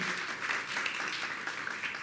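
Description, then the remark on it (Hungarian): An audience applauds steadily to welcome guests, a novelist and a filmmaker: a dense wash of many hands clapping with no pauses or voices, holding an even moderate level throughout. “ő is egy tapsot hagy kapjon”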